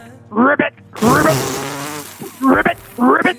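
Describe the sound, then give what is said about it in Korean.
On Park Myung-soo's radio show, a person imitates croaking frogs in spawning season with their voice for a quiz, making short buzzy, rattling calls in bursts with a longer warbling stretch in the middle, loud. “퀴즈의 정답은 개구리였습니다. 개구리. 예, 개구리. 원래는 산란기 개구리인데요.”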